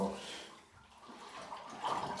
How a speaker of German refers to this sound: der Überlauf, der schnappt schon das Wasser weg. Dass er nicht überläuft, die Wanne. Deswegen heißt das Ding vielleicht auch Überlauf.